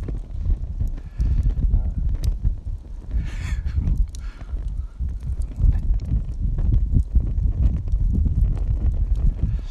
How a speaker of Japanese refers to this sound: ちょっとね今日は風が強くてあれなんですけどね